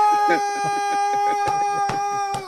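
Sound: rooster crowing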